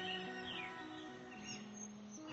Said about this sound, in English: the birds sound even more delicious out today. It sounds like there's so many more happy birds